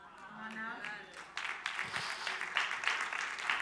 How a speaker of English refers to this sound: Is this good, y'all? Y'all giving me golf claps. That was good for me.